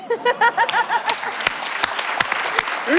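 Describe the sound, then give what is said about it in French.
An audience bursts into loud, sustained applause, a dense wash of many hands clapping with sharp individual claps popping out, while a few voices and chuckles rise briefly at the start. “orgie d'applaudissements”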